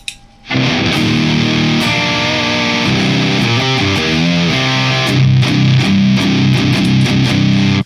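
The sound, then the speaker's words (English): A loud, thick electric guitar run through three stacked effects pedals, a Xenia, a Maleficent and a Super Axolotl, playing sustained distorted chords and shifting notes for several seconds after a brief quiet start, with no talking. “So when we add the Xenia in,”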